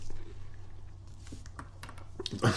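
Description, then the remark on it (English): Crisp crunching of someone chewing very crunchy biscuits, a run of irregular sharp crackles over a low background hum, ending in a louder burst of crunches. “Don't talk with your mouth full. They're very crunchy biscuits”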